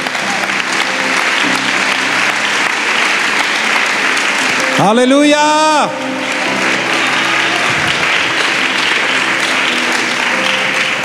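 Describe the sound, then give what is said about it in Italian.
Sustained applause from a large audience for 'our King' during a religious message, a dense steady wash of clapping filling the whole stretch, with a single voice briefly shouting an exclamation over it midway. “Facciamo un applauso al nostro Re.”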